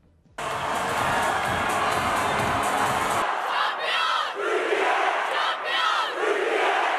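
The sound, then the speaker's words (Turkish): A large crowd erupts in loud, sustained cheering and shouting, celebrating the Turkish women's national volleyball team's 3-0 win over Germany that earned them a place at the Tokyo Olympics: a dense roar with a heavy low rumble at first, then bright, overlapping jubilant yells. “3-0'lık galibiyet sonrası coşkulu bir sevinç vardı.”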